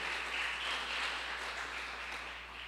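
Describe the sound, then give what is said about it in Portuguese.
An audience applauds the Lord at night, a dense, continuous wash of many hands clapping at once that holds for a few seconds before easing slightly at the end. No one speaks over it. “Você pode aplaudir o Senhor nessa noite?”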